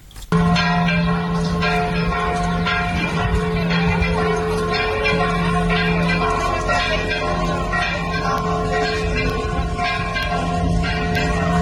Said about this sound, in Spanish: Bueno, lo que está escuchando usted son las campanas del pueblo de Santiago Salichintla, que van a activarse, van a sonar, están sonando porque se, la gente hoy hizo el, simulacro para eh, abandonar sus hogares de inmediato y ir a los refugios